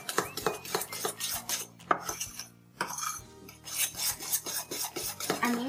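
Steady scraping and rubbing as a utensil is worked around a bowl, mixing batter to be cooked in a microwave in quick repeated strokes, with faint clinks against the sides and no voices.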